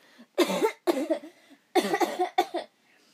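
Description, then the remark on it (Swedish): A person imitates a harsh, rattling consumptive cough, as if having tuberculosis, in two bursts, each a quick run of hacking coughs, loud with brief pauses between. “Så var det en tjej som alltid skulle hålla på så här och hosta. Du vet så här som att man har tuberkulos.”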